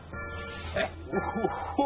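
A dog barks several times in quick, uneven succession, short sharp yaps at moderate volume over a steady background hum, with no voices heard.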